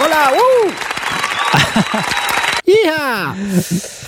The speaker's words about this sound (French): Merci beaucoup. Euh, enfin, c'est très très instructif en plus, et puis le résultat est super. Donc, on t'applaudit. Regarde.